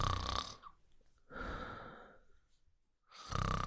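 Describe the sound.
Slow, even snoring: three drawn-out, raspy breaths in a steady rhythm, separated by short pauses, with no one talking.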